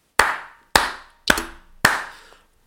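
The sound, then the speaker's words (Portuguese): Four sharp, evenly spaced, loud hand claps of applause for Dona Leonor, each with a quick attack and a short fading tail, with no talking. “Palmas para a Dona Leonor, caralho.”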